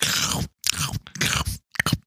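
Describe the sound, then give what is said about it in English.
Loud crunching of chips being chewed, in several bursts separated by short pauses, with crisp crackling textures and no talking. “Should I just be eating chips really loudly and then go? you want the nice little crunch?”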